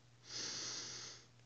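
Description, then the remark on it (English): A single long, deep inhale through the nose during a guided breathing exercise, a soft airy hiss that swells and holds for about a second before easing off, with a faint steady hum underneath. “Another deep breath, breathing in,”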